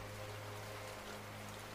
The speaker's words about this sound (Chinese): 你愿意整个夜晚都躺在这里，在沉沉的睡眠中，继续听着这滋养的雨声。